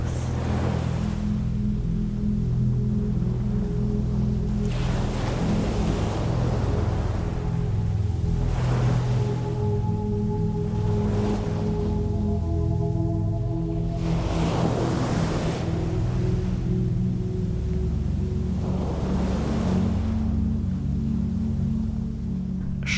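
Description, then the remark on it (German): Ocean waves wash onto a beach on a full-moon night in slow, repeating surges every few seconds, each swelling and fading over a constant low rumble and hum. No voices. “Spüre die frische Meeresluft und lass dich von der Magie der Vollmondnacht am Strand erfüllen.”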